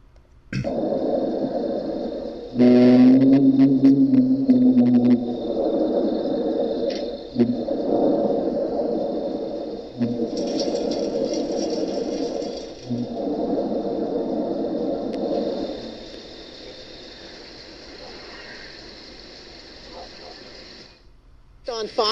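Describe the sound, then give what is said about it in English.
A mysterious low hum heard by residents of North St. Louis County drones continuously through a noisy, lo-fi home CCTV camera audio recording, swelling and dipping in waves, with a brief steadier tonal note early on and a thin high whine throughout. “we're learning more about a strange noise North St. Louis County residents say they are hearing. This is a hum that Contact 2's Mike Colombo has heard a lot about.”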